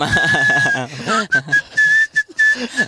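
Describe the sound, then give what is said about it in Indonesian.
A person whistles while smiling, without pursing the lips: a fairly loud whistle with a breathy tone, broken into several short bursts of steady pitch. Voices and laughter play underneath and between the notes. “Bersiul dengan tersenyum.”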